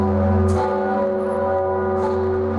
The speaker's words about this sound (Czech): tak o to se postarali odborníci z ČVUT to zvoní a nevytlouká to ten zvon. Jan Siegel z Fakulty jaderné a fyzikálně inženýrské ČVUT ukazuje výsledky nejnovějších úprav, které na zvonu Zikmund a jeho srdci navrhli. Takto Zikmund zní od roku 2019.